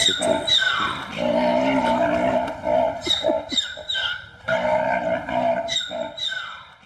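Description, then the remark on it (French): A zebra calls repeatedly in loud, harmonic bursts that sound somewhat like a horse's whinny, rising and breaking into rapid yelping notes. The calls come close together with no talking. “Ça ressemble un peu à un hennissement.”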